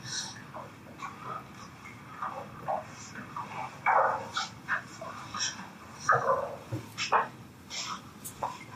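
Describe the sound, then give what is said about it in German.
A dog whimpers and lets out short yips and barks in a scattered series of brief bursts, over a steady low rumble of background noise. “Da ist was vom Hund.”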